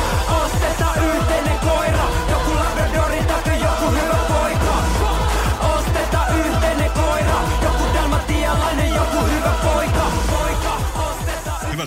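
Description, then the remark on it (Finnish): A familiar upbeat pop song about a shared dog plays loud and steady, with a driving, regular drum beat under layered instruments and melody, no one talking over it. “se toinen biisi, mikä olisi kaikille tuttu, niin mä päädyin tämmöisen … …biisiin”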